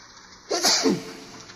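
A single sharp sneeze bursts out suddenly after a brief quiet, loud, with a breathy hiss that trails off quickly. No one speaks.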